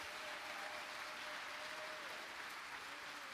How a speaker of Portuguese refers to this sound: Você pode erguer um forte aplauso ao Rei dos Reis.